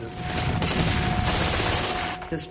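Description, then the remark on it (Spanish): A German machine gun, nicknamed Hitler's saw, with a rate of fire of 2,000 rounds per minute, fires one long, extremely rapid burst, the shots blurring into a loud, tearing roar like a saw, lasting a couple of seconds before cutting off. “La llamábamos la Sierra de Hitler porque hacía un sonido parecido al de una sierra.”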